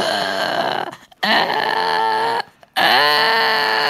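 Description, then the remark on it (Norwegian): A child's harsh, barking cough from a false croup attack, heard as three long, loud, hoarse bursts separated by brief pauses, with no talking over it. “Ja, vi fikk faktisk Eh, eh, slått fast at det var falsk krupp.”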